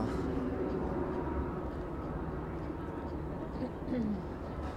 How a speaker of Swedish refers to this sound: Jag väntar för de är så jävla bullriga här. Planen alltså.